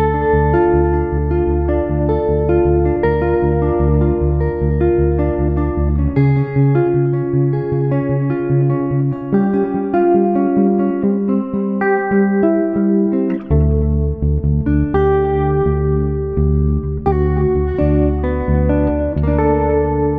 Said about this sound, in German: in dieser Folge, die gleich nach diesem Intro beginnt.